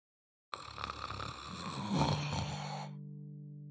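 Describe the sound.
A person vocally imitates the eerie, ghostly sleep snoring of the character Solinar: one long, raspy, breathy drawn-out inhale lasting a couple of seconds, fairly loud, ending in a low sustained hum.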